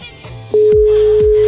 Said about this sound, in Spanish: a ver si me coge el teléfono. A ver si nos coge el teléfono. A ver.